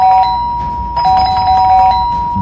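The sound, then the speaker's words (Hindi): A doorbell is rung over and over from outside the door, its bright electronic chime pressed in two quick bursts, loud and insistent with a steady, ringing pitch and no voices. “बाहर से door bell बजे जा रही थी”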